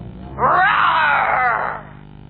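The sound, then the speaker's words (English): Someone voices a dinosaur roar as an April Fool joke: one loud, drawn-out growling cry lasting just over a second, rising quickly and then trailing off, with no other talking. “It sounds like a. a dinosaur!”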